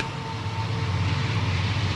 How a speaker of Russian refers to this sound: поезд на заднем плане проезжает, видите, вы можете слышать, какая, какая громкая эта штука – сейчас затихнет, я продолжу свою историю. Мне пришлось сделать паузу в записи, потому что поезд был, ну, длинный-длинный.